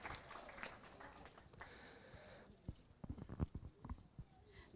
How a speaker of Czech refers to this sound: Tak děkuji, můžete klidně zatleskat